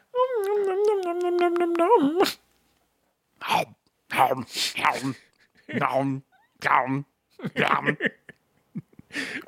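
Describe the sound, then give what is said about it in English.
A person draws out a long, wavering cat-like meow with their voice for about two seconds, then several short bursts of conversation follow with pauses between them. “Oh, I was just making the sound a Shut cat makes.”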